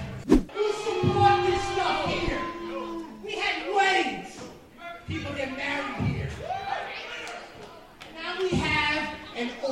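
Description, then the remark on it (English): A large wrestling crowd at BCW's Queen of the North show in the Bronx roars and yells in loud, sustained waves of shouting voices, with a sharp thud at the start and scattered whoops rising above the din. “Yeah, cheer for that.”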